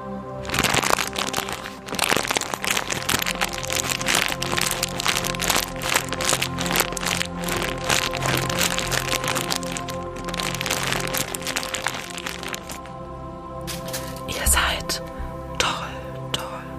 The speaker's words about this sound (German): Ich habe leider nichts zum Rascheln in meinem Zimmer außer einer Packung Einhornkondome. Hört ihr sie?